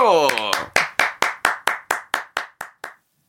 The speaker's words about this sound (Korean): 그럼 한번 아 저밖에 없지만 박수로 한번 청해서 네. 듣도록 하겠습니다. 네. 박수.